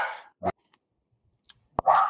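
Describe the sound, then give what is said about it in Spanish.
A female dog barks in short, sharp bursts: a couple of quick barks, a pause of near silence, then two more loud barks. No talking is heard. “tenemos una perra que ha decidido que va a gritar”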